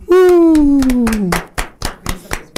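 A long, falling whoop-like vocal tone rings out over scattered hand claps, then the clapping continues alone as a short, irregular burst of sharp claps before fading.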